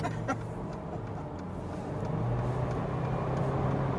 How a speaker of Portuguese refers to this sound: Cara, por que eu não ultrapassei esse caminhão aqui, cara?